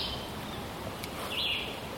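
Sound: birds calling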